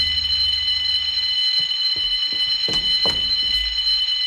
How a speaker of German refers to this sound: gesamte Alarmanlage. Hoffentlich kommt bald der Besitzer, um das Ding abzustellen.